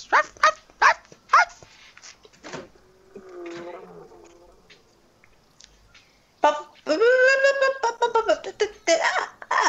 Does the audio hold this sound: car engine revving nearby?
no